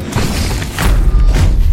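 A loud, booming explosion sound effect with heavy low-end rumble, swelling and rolling on for under two seconds with a second surge of blast noise near the end.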